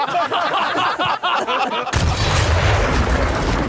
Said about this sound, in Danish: prøv at lægge mærke til, hvordan han får affyret kanonen, da han hører joken. Det artilleristerne gør, de holder snoren stram, slår ned med flad hånd, flår den ud af hullet, så kanonen går af.